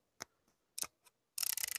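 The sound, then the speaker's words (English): Small mechanical clicks from the aperture ring of a 23 mm f/2.0 camera lens as it is rotated to change the f-stop: a few spaced single clicks, then a quick run of about ten detent clicks, fairly quiet, with no talking. “Okay, so that clicking is the sound of the aperture dial changing the the f stop.”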